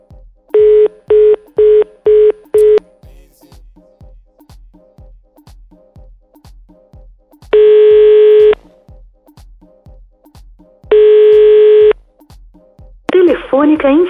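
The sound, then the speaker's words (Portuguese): A quick run of five keypad dialing beeps, then two long, steady ringing tones separated by a pause, with a faint regular ticking underneath; a voice starts right at the end. “Vamos ligar para ele, ver qual que é.”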